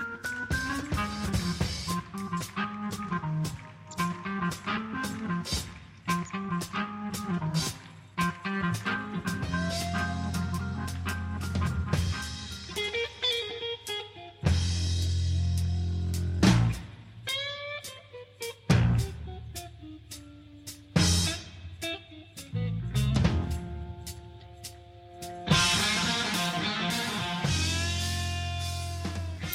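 A loud live rock concert passage about three and a half minutes into a song, where a distorted organ and an electric guitar trade fast, bending phrases back and forth over a steady bass and drums, with no voices.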